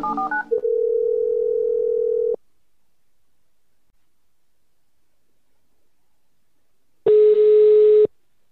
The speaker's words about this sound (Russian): Сейчас попробуем набрать а, в прямом эфире нашего победителя. Так, вызываем номер телефона и набираем.